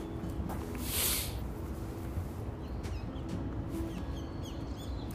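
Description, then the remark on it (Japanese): Scattered short bird chirps over a steady low rumbling background, with a brief airy whoosh early on. No one speaks. “しばし鳥さんの声を”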